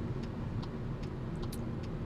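A car's turn signal ticks steadily, five or so evenly spaced clicks over the low, constant rumble of the vehicle's interior and engine. No one speaks.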